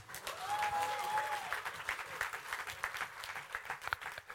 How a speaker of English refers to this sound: if I were you, I would clap for Jesus.